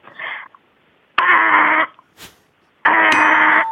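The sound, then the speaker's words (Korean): A voice imitates the grand doorbell chime of a big rich family's house, like in the film Parasite, with three loud sung tones: a brief first note, then two longer sustained ones separated by short pauses, with no other talking. “그왜막 기생충 같은 곳 보면 이렇게 큰 부잣집 네. 초인종 소리.”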